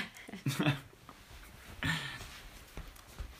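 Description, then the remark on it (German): Wet licking and smacking from a dog licking a person: two short bursts of slurping, then a few faint soft clicks and snuffles, with no talking. “Sie leckt mich ja nicht so oft ab.”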